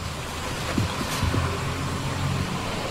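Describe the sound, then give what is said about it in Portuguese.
Steady street traffic rumbles at a bus stop throughout, a broad, continuous wash of engine noise with a brief louder swish as something passes by. No one speaks. “Para que vocês tenham ideia, nesse momento eu estou aqui, como eu falei, no, na parada de ônibus, bem à frente é o Super 300.”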